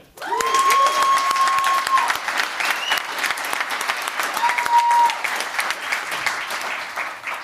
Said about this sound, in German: Und jetzt auch mal bitte richtig viel Lärm für einen Mensch, der mir auch sehr am Herzen liegt, weil ich finde, also ich bin ein Riesenfan von ihm schon immer gewesen, der netteste Mensch überhaupt